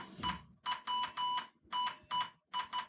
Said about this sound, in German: wollte nämlich jetzt live morsen und er wollte euch jetzt mal hier vormorsen, was hier los ist.